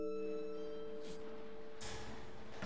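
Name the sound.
house doorbell ringing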